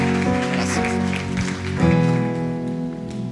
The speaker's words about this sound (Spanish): Y yo quiero que recibamos con un fuerte, fuerte aplauso